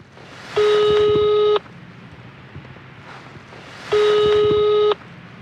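Two long telephone ringing tones, each about a second, sound with a pause between them. The steady buzzy tone is fairly loud and clear over faint background noise, with no talking. It is a re-enacted phone call to a facility, made during research in Innsbruck.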